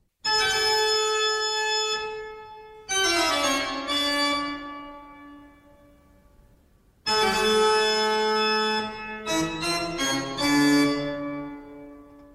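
A classical music piece by the German composer Bach, with rich, sustained chords and bright ringing notes, played in two loud phrases separated by a fading, quieter stretch. No voices are heard.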